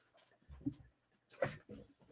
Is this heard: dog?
yes